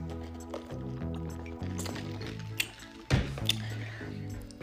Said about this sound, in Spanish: déjenme tomar un poquito de agua, que ya me está cansando esta estupidez.